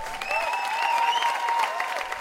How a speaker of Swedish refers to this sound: Så nu eh, lägger vi in en applåd här och gratulerar